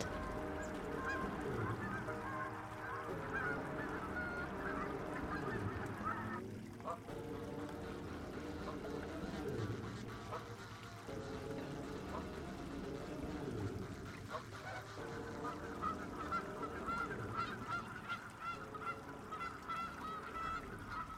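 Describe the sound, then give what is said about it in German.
A dense, steady chorus of waterfowl, geese honking and ducks quacking over one another without pause, fairly loud, with an outdoor water-side ambience running underneath throughout. “Alles um ihn herum blühte und brummte und quakte und knospte.”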